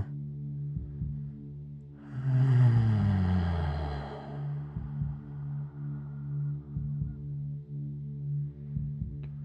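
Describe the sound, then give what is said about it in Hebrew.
During a breathing exercise, after a deep breath is taken and held, a low, steady hummed tone drones on throughout, swelling with a breathy rush of exhaled air partway through before settling back into a soft, sustained vocal hum. “ונוציא צליל של הנחה.”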